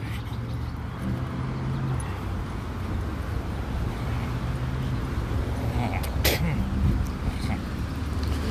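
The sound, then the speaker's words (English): An Aramark truck rumbles along a road by a park, a steady low engine drone with a brief rise as it passes, heard outdoors over faint wind and background traffic. “Oh, there's an air Aramark truck.”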